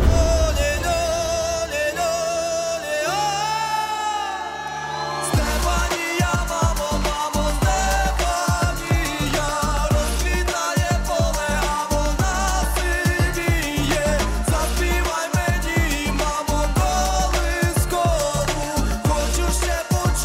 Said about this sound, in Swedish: Det är en jättebra låt. Ja, nej tyvärr. Vi lyssnar.